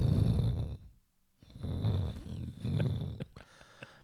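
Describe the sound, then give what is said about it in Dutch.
A voice imitates a deep, rumbling boom heard about every half minute, in three low, growling bursts, fairly loud, with a brief silence after the first. “En ik hoorde heel hele tijd gedreun. En eh, zeg maar, elke halve minuut hoorde ik zo.”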